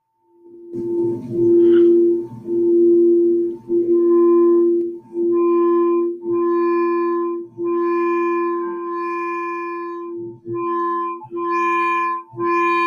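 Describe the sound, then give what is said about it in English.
Loud, sustained humming tones at a steady low pitch, with shimmering higher overtones, swelling in a series of long pulses separated by brief dips, like singing bowls in a sound bath. “Sound bath. Here we go.”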